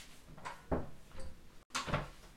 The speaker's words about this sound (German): Ich gehe mal schnell die Tür machen.